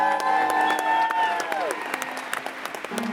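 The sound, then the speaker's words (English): A crowd in a packed middle school gymnasium claps and cheers loudly at an event with Reverend Barber and local interfaith leaders, dense applause with a few whoops and raised voices over it, continuing steadily throughout. “Make some noise if you really mean that.”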